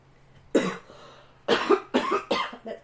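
A sudden, loud cough bursts out, followed by a rapid string of four or five more harsh coughs in quick succession, with no talking.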